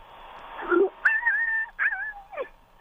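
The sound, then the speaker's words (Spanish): A human voice imitating a run-over rabbit slips into dog-like whimpering: four short, high, wavering whines that slide up and down in pitch, fairly loud. “No, no, ya le cambiaste a perro. no, no, estabas en conejo, estabas muy bien en tu tono de conejo atropellado.”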